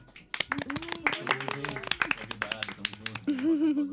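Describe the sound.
A burst of applause for the guests from a small group in a room provided by the Department of Philosophy, Communication and Information: quick, dense hand claps, with voices cheering and whooping over them, ending in a louder rising cheer.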